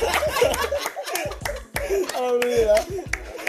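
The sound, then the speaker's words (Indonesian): Several sharp hand claps land irregularly between and over lively voices and laughter, fairly loud, with a few quick claps bunched together. “Aduh, itu tepuk tangan aja.”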